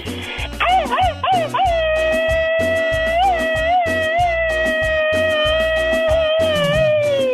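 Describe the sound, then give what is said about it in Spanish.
A loud, high-pitched vocal scream that wavers in quick, machine-gun-style bursts at first, then holds a long, shrill sustained note, with a steady thumping beat pulsing underneath. “es la única que se avienta el grito ametralladora?”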